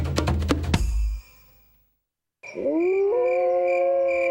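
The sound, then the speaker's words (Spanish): A short burst of clattering noise, a brief silence, then several wolves howling together, long sustained tones that rise and hold, fairly loud. “¿Es un documental sobre lobos?”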